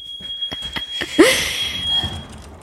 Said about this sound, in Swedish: Nu är det någon som har ett larm va? Ja, ah, nej förlåt, det är mitt brandalarm som går här, jag vet inte varför. det kanske brinner.